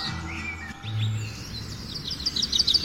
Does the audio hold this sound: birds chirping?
yes